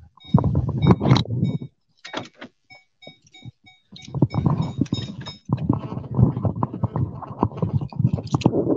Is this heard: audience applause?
no